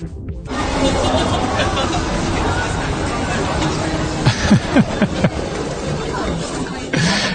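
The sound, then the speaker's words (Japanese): Busy night-time street ambience in an entertainment district, with a steady wash of crowd chatter and traffic rumble, and a few brief sharp sounds cutting through midway. “夜中っぽい。夜の繁華街。”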